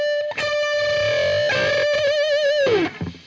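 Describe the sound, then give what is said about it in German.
A distorted electric guitar bends a string up to match the same target note fretted on another string in unison; the two tones waver and beat against each other before the bent note drops away at the end. “Und ein schöner Effekt ist, finde ich, auch wenn man Banding macht und dann noch den ähm, Ton, zu dem man ziehen will, noch zusätzlich äh, auf einer anderen Seite greift.”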